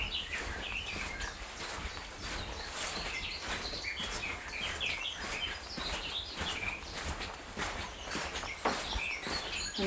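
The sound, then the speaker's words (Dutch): Steady footsteps crunch along at an even walking pace through a tunnel near the bird hide at Schollevaar, with birds chirping and singing throughout in the background. No one speaks. “We lopen door de tunnel heen, zodat we geen eh, verstoring zijn eh, voor de vogels eh, aan de andere kant van de, van de vogelkijkhut.”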